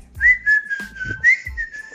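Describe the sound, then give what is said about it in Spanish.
A person whistles a steady, warbling birdlike tune, the pitch wavering with little upward trills, accompanied by a few soft low thumps and no talking. “Cuando lleguen, cuando lleguen al juzgado, tú haz como si fueras como un pájaro y empiezas a chiflar.”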